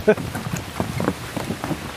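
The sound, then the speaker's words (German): Wind stirs poplar leaves into a steady, soft rustling hiss, like light rain, with a couple of brief voice fragments breaking through near the start and middle. “Jetzt gibt es ja auch schon dieses Geräusch des Windes in den Bäumen. Ist das eine Pappel hier?”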